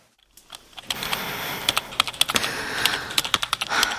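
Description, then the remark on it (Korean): Rapid, uneven keystrokes clatter on a computer keyboard as someone writes, clear, with a few louder key hits punctuating the steady typing. No one speaks. “누리는 마음 깊이 남아있는 일들을 하나씩 적어 나갔다.”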